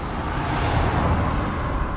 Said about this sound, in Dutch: Ik heb gehoord van de postkastmaker dat iedereen hoort dat er iets voorbij rijdt. Er rijdt nu een auto voorbij, dat moeten we benoemen